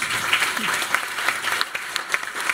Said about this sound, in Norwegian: Jeg syns vi skal gi dem eh, en god applaus.